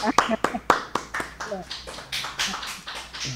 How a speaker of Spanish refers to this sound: Wow, te voy a dar un aplauso, ¿viste?